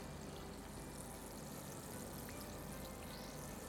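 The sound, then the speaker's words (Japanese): A soft, steady fizzing of a mojito bubbling in a glass made from the bottom half of a cut bottle, quiet, with faint crackling pops over a continuous hiss and no talking. “モヒートですわこのグラスにじゃああシュワシュワ音が聞こえます”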